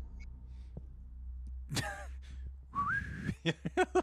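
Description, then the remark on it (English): A person whistles a short rising note, steady and clear, after a breathy exhale, followed by a few quick chirpy whistled blips. Fairly loud, with no talking. “whistle, I whistle, and then I let my dog eat them.”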